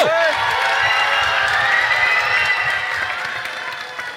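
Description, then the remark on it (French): An audience cheers and applauds as loudly as it can on a count of three for Preskins, as a noise gauge for a jury, with dense clapping, shouts and high whoops blending into a steady roar that tapers slightly toward the end. “Donc à 3, faites un maximum de bruit pour Preskins.”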